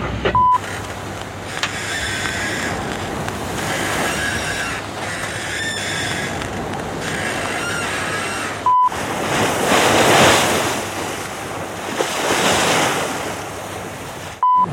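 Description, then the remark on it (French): Continuous rushing water and surf washing against a moving boat's bow at sea in a swell, recorded at the front of the boat, steady and fairly loud, with a surge of heavier splashing partway through and wind noise on the microphone. “Je suis à l'avant du bateau.”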